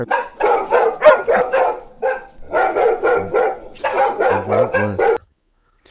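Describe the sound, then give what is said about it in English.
Someone imitates a skunk being choked, making a rapid string of strained, yelping squeals and barky gasps for about five seconds, loud, then it cuts to silence. “just feel like there might have been a skunk getting choked out.”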